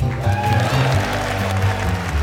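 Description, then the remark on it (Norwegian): Sustained applause from a large crowd in the US House of Representatives chamber on the Tuesday Kevin McCarthy was put forward as Speaker of the House, a steady loud wash of clapping with a low murmur of voices beneath it. “Men på tross av applaus, denne tirsdagen skulle ikke bli Kevin McCarthys dag.”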